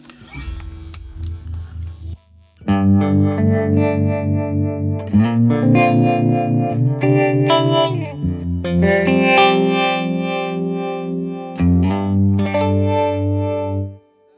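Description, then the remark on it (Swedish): An electric guitar plays sustained chords through a Mighty Green Mini Vibe modulation pedal, with Velocity and Amplitude knobs, the tone swirling and wavering as it rings out loud and distorted, with a short pause before a final chord. “Amplitude är en av rattarna, dum är velo, velo, Velocity och amplitude.”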